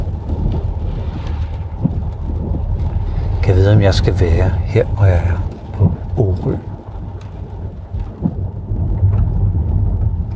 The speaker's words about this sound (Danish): Det regner godt lige nu.